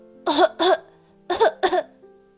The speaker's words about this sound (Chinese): 贝里奥一头冲进鸟窝，被扬起的草灰呛得直咳嗽。